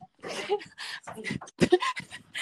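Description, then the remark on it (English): Three dogs pant and whimper in short, breathy bursts, mixed with excited high yips, after knocking a door in, while a person talks over the commotion. “Three dogs literally just knocked my door in.”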